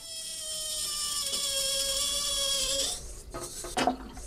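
Water draining from a sink makes a steady, whining suck for about three seconds, then breaks into a few loud gurgling slurps as the last of it goes down.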